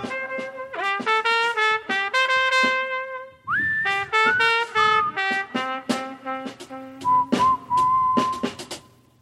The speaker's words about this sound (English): Wow, that whistling was nice. What song is that?